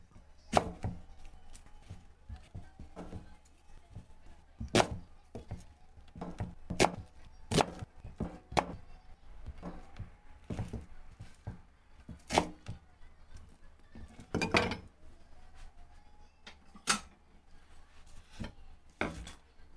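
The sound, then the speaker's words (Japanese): A knife chops onions on a cutting board while dinner is prepared at 5 p.m. on December 16, with a vegetable stir-fry being made: sharp, irregular thuds, some quick bursts and some spaced out, over a faint low hum with no talking. “12月16日夕げの支度の音ですこの夕げの支度の音ですっていう書き出しいいですね、えー、玉ねぎを切ったりペーパーミル使ったり野菜炒めを作っていますとえー、いいですね”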